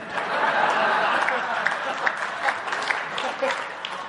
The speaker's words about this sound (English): And people clap and laugh, especially parents.